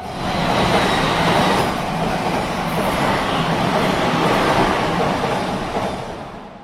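train rumbling past

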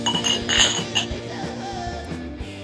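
whiskey glasses clinking

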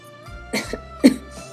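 coughing twice

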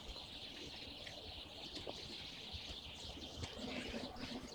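flock of sparrows chirping

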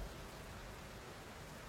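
thunder and heavy rain

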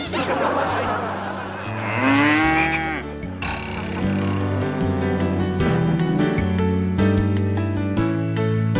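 dairy cow mooing

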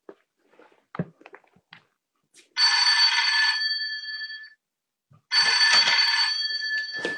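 telephone bell ringing

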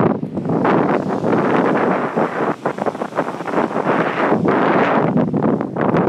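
sea waves and wind

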